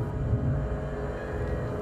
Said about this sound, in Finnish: Kun oli lapsi, kodissamme oli sinapinruskea arkupakastin keittiössä. Se piti aina välillä outoa hurinaa tietyssä rytmissä